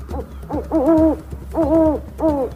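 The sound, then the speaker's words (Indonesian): A snowy owl hoots: a few short calls and longer, drawn-out hoots in an uneven rhythm, fairly loud, over a steady low rumble with no talking. “Aku bukan burung berbintik, aku si burung hantu salju.”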